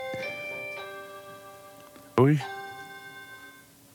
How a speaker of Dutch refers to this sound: Ja, dat is de, deur, dat is de deurbel die ik niet open ga doen.